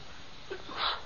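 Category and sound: human body sound, sneeze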